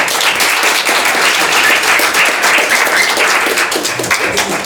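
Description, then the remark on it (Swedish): Sustained audience applause for everyone involved, a dense wash of many hands clapping at a steady, loud level throughout, with no voices standing out. “Applåd tycker jag till alla inblandade.”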